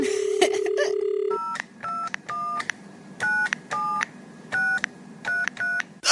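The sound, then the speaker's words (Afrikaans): A telephone number is dialed on a keypad after the handset is lifted and the dial tone heard: a quick run of short beeps, then about a dozen evenly spaced dual-tone presses, clear over a low background hum. “Derde Skakel net nou die nommer van Susan.”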